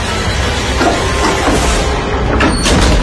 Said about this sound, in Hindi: दरवाजा जोर की आवाज के साथ खुला और वो लड़की रोती हुई बाहर आई और भागती हुई पटरियों की ओर चली गई